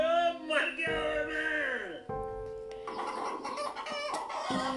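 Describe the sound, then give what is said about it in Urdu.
Hens and chicks squawk and cackle in frantic alarm at the sound of a blast, several birds at once, loud, with overlapping shrill calls and a continuous busy clamor throughout. “اس دھماکے کو سن کر مرغیاں اور چوزے سب چیخنے لگے عجیب مصیبت سی شروع ہو گئی تھی عجیب سی وحشت شروع ہو گئی تھی”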